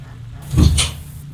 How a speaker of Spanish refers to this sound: El perro, que se había quedado en la calle, ladró hacia adentro y escucharon cómo la puerta de la casa se intentaba abrir a sus espaldas.